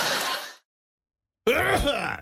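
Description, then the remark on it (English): A single sneeze bursts out as a loud, breathy, noisy blast, followed by a brief silence and then a drawn-out voiced groan or exclamation with wavering pitch. “Whoa, bless you. Bless you.”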